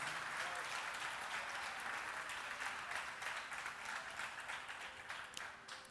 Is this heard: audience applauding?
yes